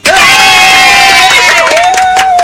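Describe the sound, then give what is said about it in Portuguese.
A loud crowd cheers and whoops with sustained high-pitched screams, while scattered clapping runs underneath for the full couple of seconds, a round of applause for the management (direção). “Salva de palmas para a direção.”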